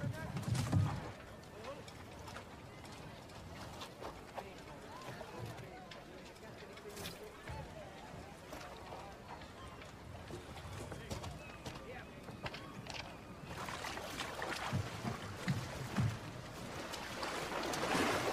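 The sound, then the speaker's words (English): Wooden thumps and knocks as someone clambers into a small boat, with water lapping and sloshing around the hull and a brief louder bump near the start and again toward the end. “You can't just climb into my boat.”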